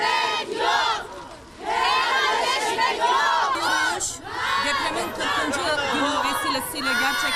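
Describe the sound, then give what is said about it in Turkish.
A crowd of women in Samandağ, Hatay, marching for relatives lost in the earthquake, shouts slogans such as "helallik isteyenlere helallik yok" in unison, loud, high-pitched voices rising in rhythmic chanted bursts with brief dips between phrases. “Samandağlı kadınlar helallik isteyenlere helallik yok diye haykırdı.”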